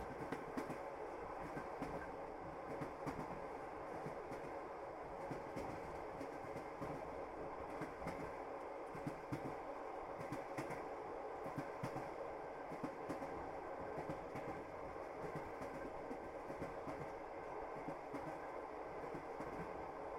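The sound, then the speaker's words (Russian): A train car rolls steadily along the tracks, a continuous rumbling hum with faint rhythmic clacking of wheels over rail joints, heard from inside at a constant, moderate level with no voices. “Поезд — это прекрасная возможность почувствовать себя здесь и сейчас.”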